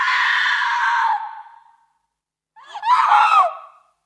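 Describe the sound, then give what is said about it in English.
In a film, Kidman's character, a very religious woman, wakes up in bed and lets out two loud screams separated by a short silence: the first long and steady before trailing off, the second shakier and wavering in pitch. “And she wakes up in bed screaming.”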